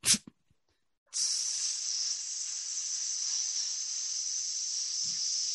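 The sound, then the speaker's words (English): A brief sharp burst and click, then after a short pause a steady, loud hiss of gas escaping from the bottom shelf of a wooden footlocker, out of the creasing along the wood, begins and continues evenly to the end, bright and airy with no talking. “as some gas begins coming out from the bottom drop drop uh, shelf that you see in the footlocker out of the creasing along the wooding uh, you see this gas that comes uh, put uh, out”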